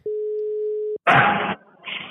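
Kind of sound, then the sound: signal or alarm, telephone ringing tone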